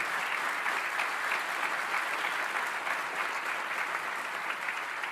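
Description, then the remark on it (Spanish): Sustained applause from an audience, given to the Lord, a dense, steady wash of many hands clapping at once with no breaks, holding an even loudness for the whole stretch without any voices over it. “Dale un fuerte aplauso al Señor, porque las cosas van a cambiar en tu casa.”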